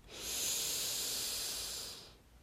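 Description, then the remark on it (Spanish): A slow, deep breath drawn in during a guided breathing exercise, a smooth airy rush lasting about two seconds before fading into quiet, with no talking. “Mantén allí el silencio interno por otro par de minutos por lo menos simplemente centrándote en tu respiración. Inhala.”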